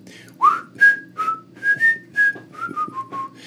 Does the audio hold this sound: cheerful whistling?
yes